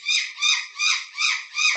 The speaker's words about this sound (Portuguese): Eita! É meu papagaio, desculpem.